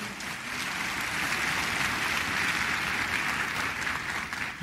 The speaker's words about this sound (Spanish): si va a aplaudir, aplauda fuerte, por favor, no para mí, sino para el Señor.